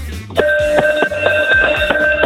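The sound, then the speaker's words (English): A large pub bell rung vigorously for last orders, struck about six times in quick succession so its bright, clanging tone keeps ringing continuously between strokes. “That is much bigger.”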